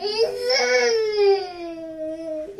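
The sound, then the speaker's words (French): A baby cries loudly in one long, drawn-out wail that slowly drops in pitch, breaking off with a brief catch of breath at the end. “Hein Pourquoi tu te fâches comme ça Et ce soir, tu veux te fâcher aussi”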